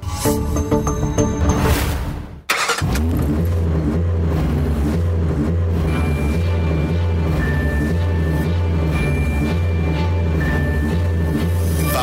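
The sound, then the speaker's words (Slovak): A car engine revs loudly, drops out for a moment, then settles into a steady, deep rumbling drone that continues without any voices. “Váš motor bude z vesela vyhrávať s palivami Max Motion od OMV”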